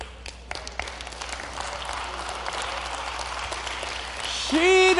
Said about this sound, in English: See, you're clapping because you got there before me, right? You're smart. Ah, you, you, you, you got there before me.